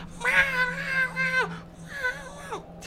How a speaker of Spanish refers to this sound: Me dice, ¿cómo hay un gato? Güey, te juro que hay un gato. Yo no puedo salir porque el gato está alterado.